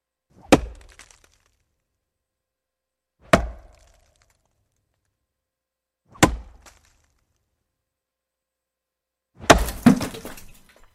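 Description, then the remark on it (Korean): A burly man living in nature splits firewood with an axe, four strikes at steady intervals of about three seconds, each a loud sharp thwack with a brief woody crack; the last blow is longer, with splintering as the log splits apart. “네, 건장한 자연인이 도끼를 들고 장작을 펴는 소리죠.”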